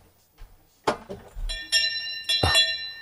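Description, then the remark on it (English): A small hand bell is picked up with a clatter and rung twice, each bright ring lingering briefly with a shimmering metallic tone. No one speaks. “Where is my bell?”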